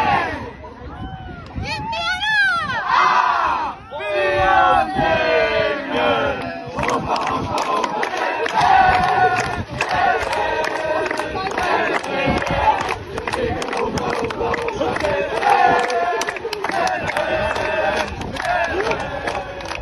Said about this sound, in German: das, was ihr da gehört habt, war die Humba unserer Damenmannschaft. Die sind nämlich genauso wie die Herren weiter im Pokal.